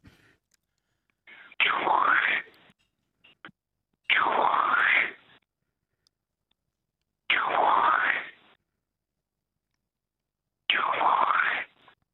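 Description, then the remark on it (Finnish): A person imitates a black grouse's hissing call four times, each a loud breathy whoosh lasting about a second, separated by short pauses, with no talking. The caller is in the Pieksämäki area. “No teeren suhin, ääntä.”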